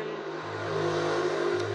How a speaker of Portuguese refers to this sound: estão ouvindo a moto, né? Eu acho que não tem um podcast que eu gravei que eu não fale da moto. Infelizmente, eu tenho que me acostumar com a moto.